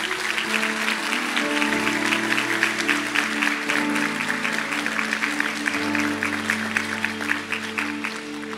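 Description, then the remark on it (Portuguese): A large crowd claps loudly and steadily for the name of Jesus throughout, a dense continuous roar of applause over sustained keyboard chords that shift pitch now and then. “Você pode aplaudir bem forte o nome de Jesus?”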